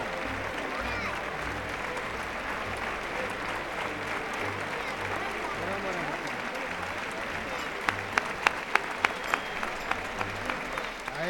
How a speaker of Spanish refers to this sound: Bueno, pues la ovación del público para tomar Rufo.